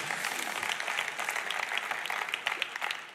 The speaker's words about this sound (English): Why don't you give them a round of applause for these amazing pictures?